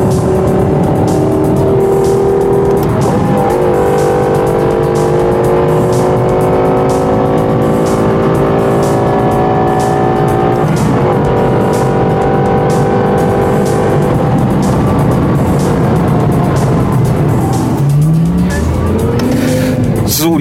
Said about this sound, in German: liebe Hörer, dass wir jetzt nicht die ganze Zeit auf der Autobahn uns äh, weiter unterhalten haben, liegt schlicht und einfach daran, dass wir bei um die 200 km/h eigentlich schon nichts mehr verstanden haben. So laut war der Motor.